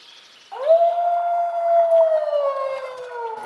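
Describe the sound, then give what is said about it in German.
A recording of wolves howling, played from a listening box: a long, sustained howl rises quickly and then holds a steady, slightly falling pitch, with another voice seeming to overlap near the end. It's fairly loud and eerily siren-like, with no talking. “schaut sich noch eine Box an, in der man sich Wolfsgejaule anhören kann”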